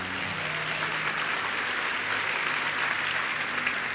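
An audience applauds steadily, a dense, sustained patter of many hands clapping at an even loudness throughout, with no voices standing out above it.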